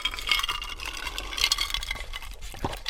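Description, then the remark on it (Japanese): Glasses touch in a toast with rice shochu from Takahashi Shuzo of Kumamoto, giving a few bright, light clinks amid a soft rattle of ice and sloshing liquid, with no voices. “さて、もう今週は早速、私の地元、熊本の高橋酒造の米焼酎、白竹城で乾杯しましょう。乾杯乾杯”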